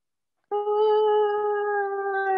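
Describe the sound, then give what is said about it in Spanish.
A voice imitates a long, sustained wailing cry heard at night from a window, steady and drawn-out with a slight downward sag, like a distant woman's mournful howl. “Bueno, entonces, en la noche, chica, en la ventana, empiezo a oír un grito como a lo lejos, ¿no? Como una voz de mujer.”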